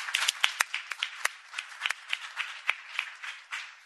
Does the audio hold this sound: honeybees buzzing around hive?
no